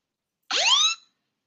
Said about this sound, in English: Is that is that a fire alarm?